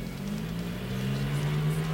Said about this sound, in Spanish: me pasa el de la moto. Fuerte.